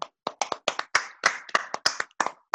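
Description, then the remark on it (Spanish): A small group claps in an irregular patter of about a dozen sharp, bright hand claps spread over a couple of seconds, with no voices. “Un aplauso, por favor.”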